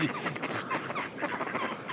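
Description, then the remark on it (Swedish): A flock of ducks quacking over one another, a busy, continuous chatter of overlapping calls at moderate volume, with no one talking. “medan vi här blåses coronan bort av, av vinden som susar i granarna medan vi lyssnar på ankor.”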